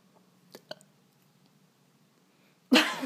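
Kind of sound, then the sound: human body sound, burp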